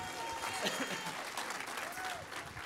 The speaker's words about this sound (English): Would you give the worship team one more round of applause this morning?